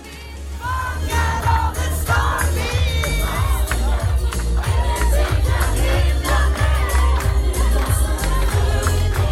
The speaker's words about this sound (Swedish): Eller, så dök hon upp liksom, kom gående in i ljuset från mörkret. Ja men gud, folk bara skrek förstås. Ja du vet folk blev ju helt mm, tokiga.